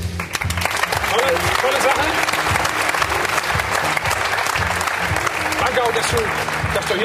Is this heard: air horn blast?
no